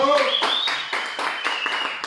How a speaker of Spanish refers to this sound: Un aplauso para él. ¡Aplausos, culeros! ¡Bravo!